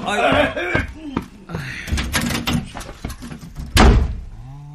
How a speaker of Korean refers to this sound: 아버지 안방에 들어가서 문 닫아버리시는데?